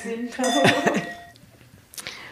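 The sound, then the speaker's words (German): Several champagne glasses clink together in a toast, their bright ringing tones lingering for about a second, followed by a softer clink and faint murmuring voices in the background. “Bringt den Champagner. Chin Chin.”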